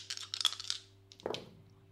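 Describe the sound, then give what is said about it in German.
A percentile die rattles and clatters across a hard tabletop in a quick burst of small clicks, then lands with one last knock. It is fairly quiet, with nobody talking. “Aufgrund der Erschöpfung würfel ich mal ein, äh, ein, ein Prozentwürfel.”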